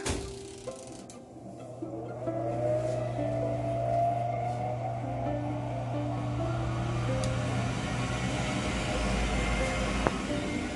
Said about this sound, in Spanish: Sí, es el sonido del horno.